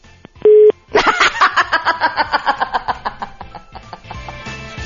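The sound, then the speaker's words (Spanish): A brief, loud steady telephone dial tone sounds once near the start as a call is redialed, then gives way to a long run of rapid, rhythmic laughter. “ok, ahí vamos otra vez a intentarlo hijo, yo traigo un pleito con las compañías de teléfono celular que parece personal.”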